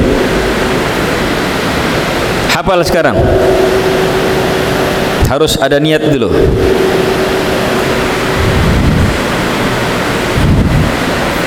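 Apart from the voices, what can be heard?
heavy rain falling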